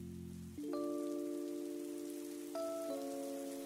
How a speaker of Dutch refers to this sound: Ondertussen begint het weer te regenen.